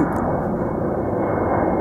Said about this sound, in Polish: To jest to samo, to ciągle ten sam samolot leci. Nam się wydaje, że to są różne samoloty, ale to jest tak naprawdę ciągle ta sama projekcja, tylko w różnych miejscach.